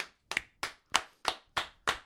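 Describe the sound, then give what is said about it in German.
Steady, rhythmic clapping: six sharp, evenly spaced claps about a third of a second apart, each crisp and bright, with no voices over them, applause at a charity concert with bands. “Das, Applaus.”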